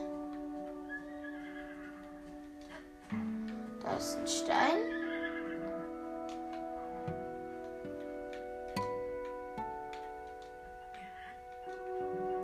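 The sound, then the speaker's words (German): A horse whinnies in a rising, wavering burst near the middle as the horses run away, with faint clip-clopping hooves and a steady tonal backdrop while a person talks. “Die Pferde rennen gerade weg.”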